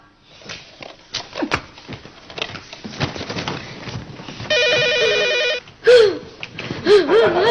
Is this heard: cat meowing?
no